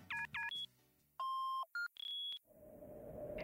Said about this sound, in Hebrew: נא להשאיר הודעה לאחר הישמע הצפצוף.